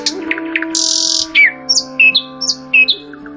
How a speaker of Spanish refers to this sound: Recuerdo el sonido de los pájaros poblando las copas de los árboles.